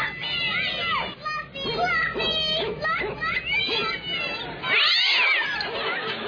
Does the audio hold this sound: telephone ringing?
no